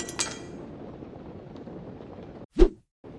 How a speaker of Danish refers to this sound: og den, øh, den behagelige kniv, som øh, han holdt i hånden, den øh, klinker ned på øh, gulvet.